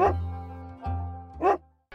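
dog barking

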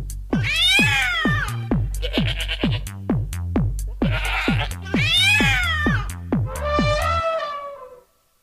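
cat meowing sound effect

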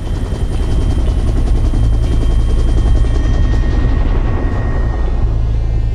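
helicopter hovering

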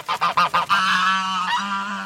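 goose honking

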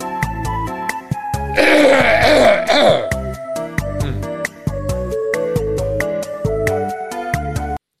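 throat clearing and coughing

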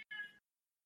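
cat meowing

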